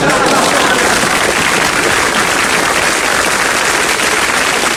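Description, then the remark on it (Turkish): A steady, loud burst of applause from many hands, a dense, continuous patter of clapping that holds at an even level for about five seconds without letting up. “Bu alkışlar bugün bu korku programını ee, yapmamı sağlayan herkese gelsin.”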